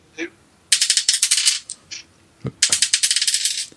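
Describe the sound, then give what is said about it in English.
Dice clatter and bounce on a hard tabletop in two quick bursts of rapid, sharp clicks that tumble and fade, with a short pause between them; one die bounces off the table and is caught. “bounced off the t- off the table, mm. but I caught it.”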